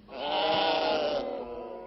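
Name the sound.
sheep bleating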